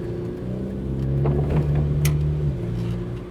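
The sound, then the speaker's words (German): A car engine hums low and steady, swelling as the vehicle rolls past, then easing off again as it moves away. No voices. “Naja, auch hier fahren komische Gestalten rum.”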